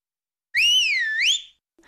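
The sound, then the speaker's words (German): A single loud, piercing whistle made with two fingers lasts about a second, its pitch rising, dipping, then swooping up again before cutting off, followed by silence. “Wir sind beim Pfiff mit zwei Fingern.”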